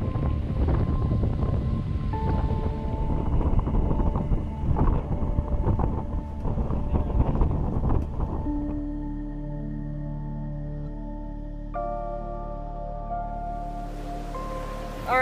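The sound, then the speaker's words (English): Buffeting wind and splashing water around a moving boat at the Tarkiln Preserve, loud, giving way after several seconds to a steady low engine hum with tonal drone. “right, so we're about to get off the boat.”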